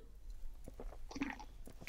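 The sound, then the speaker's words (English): Quiet chewing of bread, with soft crunchy bites and moist mouth sounds in an irregular rhythm, heard on its own without any talking. “Sorry, get back into mm. bread.”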